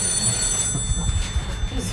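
An old black rotary telephone bell rings continuously, a steady metallic trill sitting somewhat in the background over a low rumbling noise.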